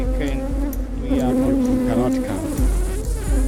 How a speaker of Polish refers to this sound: żądlenie pszczół afrykańskich nie jest jakoś super bolesne, podobno. Natomiast problem polega w tym, że one atakują chmarami i naprawdę nie odpuszczają.